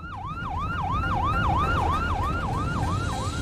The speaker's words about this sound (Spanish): Al escuchar la sirena, el paramédico fuera de servicio se orilló. Creía que era una parada de rutina.